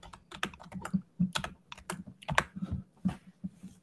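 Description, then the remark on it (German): Rapid, irregular keystrokes clatter on a computer keyboard, a steady run of clicks and taps with no one speaking. “Ich werde hier immer noch tippen.”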